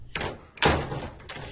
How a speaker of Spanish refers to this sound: antes de que ella pudiese seguirme subí corriendo por las escaleras hasta la terraza y cerré a mis espaldas las puertas dobles de vidrio